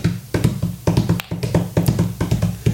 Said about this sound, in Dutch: Oké, okay, je hoort opnieuw het, het gegalopeer van paarden rondom u.